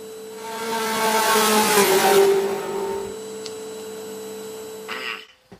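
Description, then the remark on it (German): A car engine runs with a steady droning hum, swelling into a louder rev for a couple of seconds before settling back and cutting off abruptly at the end. No one speaks. “Ja, Schatz, lass das Auto schon mal an.”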